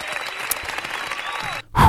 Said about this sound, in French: Merci l'école acoustique de sponsoriser notre émission. C'est vraiment très très cool. Je vous applaudis. Merci.